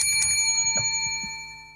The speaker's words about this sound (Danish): Er det, er det din klokke, den her?